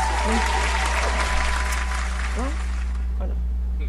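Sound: clapping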